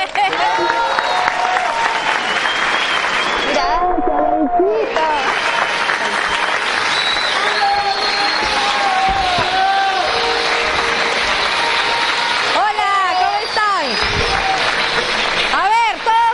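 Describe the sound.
Sustained, loud audience applause fills the whole stretch, with scattered whoops and cheers rising above the clapping. A voice laughs and briefly speaks over the noise. The applause is for a speaker at a Christmas event, as thanks.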